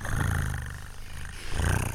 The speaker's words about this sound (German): Wem gehört diese Katze?